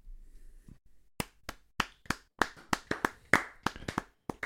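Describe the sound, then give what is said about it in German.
A short burst of hand clapping applause for a music cassette's birthday: about a dozen sharp claps in a quick, slightly uneven rhythm after a moment of quiet, with no one talking. “Und wenn es nur einmal in die Hände klatschen ist, einmal kurz für die Musikkassette zum Geburtstag einen kurzen Applaus.”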